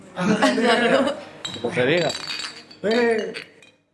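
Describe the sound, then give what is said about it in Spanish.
Glasses clink together in a toast, with bright ringing chimes sounding in a few bursts over several people's cheerful voices. “Eh, una de cinco brindo sin alcohol.”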